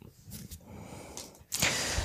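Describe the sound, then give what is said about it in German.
A few quick, breathy intakes of air build up to one sharp, loud sneeze that bursts out near the end, with a soft low rumble underneath throughout. “so, Gesundheit.”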